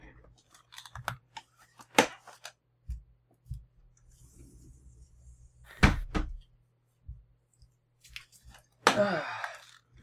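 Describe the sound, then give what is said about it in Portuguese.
A cupboard door that had been left open is handled and shut: several sharp wooden clicks and knocks, a solid thud midway, then a final rattling clack as it closes. “Ah, a porta do armário estava aberta e eu não, não gosto.”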